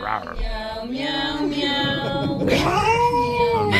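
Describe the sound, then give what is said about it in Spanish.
A cat yowls in long, drawn-out, wavering meows that rise and fall, loud, one cry running into the next like a caterwaul. “Un gato, un gato.”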